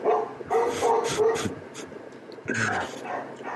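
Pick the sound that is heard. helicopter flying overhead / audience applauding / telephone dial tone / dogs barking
dogs barking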